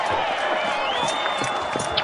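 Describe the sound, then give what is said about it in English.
A large crowd roars in a continuous wash of voices as gates open along the first baseline and the German mercenaries come onto the field, with whistles and high shouts rising above the steady, dense cheering throughout the whole stretch. “And Crowd is going crazy now.”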